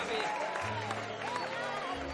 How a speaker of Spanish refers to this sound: ¡Ese Paul aplaude con desgano.